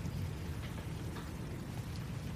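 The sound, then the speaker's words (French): Steady rain hisses down continuously, with a deep low rumble of thunder rolling underneath throughout. No voices, just the even wash of the downpour. “il commence à pleuvoir.”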